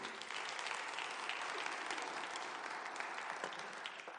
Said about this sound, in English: And so I think we should applaud that. Come on, let's give God praise for that.